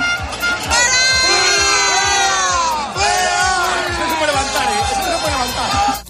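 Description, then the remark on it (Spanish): A large crowd of protesting farmers shouts and chants loudly, urging that the cornered agents be thrown into the river, many overlapping voices yelling "¡Al río!" in a dense, continuous roar with rhythmic bursts throughout. “los agricultores han comenzado a golpearles, tirarles fruta y han llegado a arrinconar a los agentes sobre una pasarela a varios metros de altura mientras otros manifestantes les animaban a tirarles al río.”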